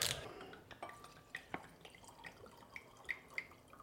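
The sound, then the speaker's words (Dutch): Wine brought from home pours into a glass: a short splash at the start, then a run of quiet, irregular glugs and drips, with no voices. “Gelukkig heb ik maar wijn meegenomen van huis.”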